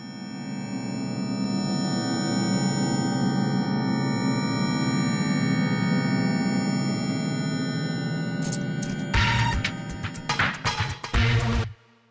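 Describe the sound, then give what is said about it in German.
A sonification of a spider's web: sustained synthesized tones ring in layered, shimmering pitches for about nine seconds, then break into a burst of busier, crackling electronic clusters near the end; no voices. “Das nächste Mal, wenn ihr eine Spinne seht, dann denkt doch vielleicht mal an die Komplexität ihres Netzes und vielleicht auch an diesen Sound.”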